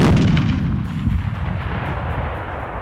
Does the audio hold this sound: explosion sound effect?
yes